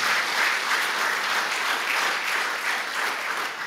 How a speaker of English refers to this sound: Can we just give God another cheer of honor for that?